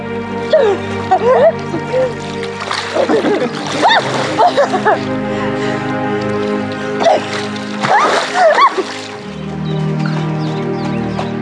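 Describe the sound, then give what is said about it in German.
Splashing in water comes in a few bursts as a woman in a thin underdress runs into the water in sunshine and a man rushes in after her, with bright voices and what sounds like laughter over a steady, sustained musical backdrop throughout. “zieht sie blitzschnell ihren Überrock aus und rennt ins Wasser nur bedeckt von einem dünnen Unterkleid.”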